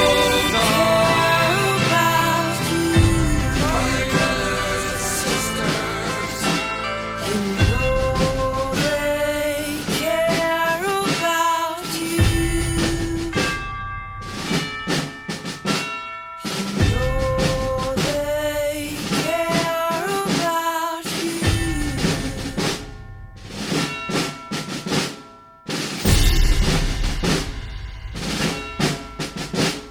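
A full band plays a song with dense layered instruments and punchy percussive hits, loud and steady throughout, with a few brief drop-outs before the groove kicks back in.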